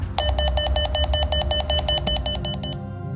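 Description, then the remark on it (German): A doorbell rings at a door that stays shut, with no one answering: a rapid, steady train of about a dozen bright electronic pulses over a low rumble, then it cuts off shortly before the end. No one speaks. “Du läutest, aber die Tür bleibt zu.”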